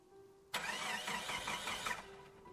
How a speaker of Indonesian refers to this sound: Kita terus mencoba menyalakan mesin mobil.